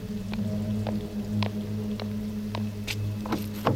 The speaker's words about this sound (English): Jesus, it's pouring.